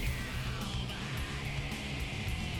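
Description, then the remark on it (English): A raw, screamed vocal snarls over loud, dense distorted rock, the harsh voice sustained and strained across the whole stretch with the band pounding steadily underneath. “that's just an angry fucking Yeah. snarl.”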